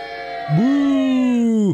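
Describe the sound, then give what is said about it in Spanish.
One voice draws out a low, steady booing groan for almost two seconds, sliding up at the start and fading at the end. It imitates a crowd's boo aimed at the Chivas football team, and there is no other talk. “Así que abucheo para Chivas.”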